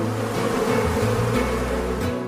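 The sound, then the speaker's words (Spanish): A dense swarm of bees hums steadily, a continuous layered drone with shifting pitches that stays loud and even throughout, with no voices. The swarm is slowly settling onto a man's hand, drawn by the queen bee he holds between his fingers. “Cuando la encuentra, la coloca entre sus dedos y de esa manera atrae al enjambre que poco a poco se posa en su mano.”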